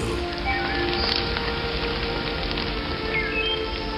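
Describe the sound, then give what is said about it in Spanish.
Steady rain falls in a dense, continuous patter, with faint bird chirps coming through now and then in the background. No one speaks. “Pero de repente Parecía que Dios estaba tan emocionado como yo, porque empezaron a caer gotas del cielo.”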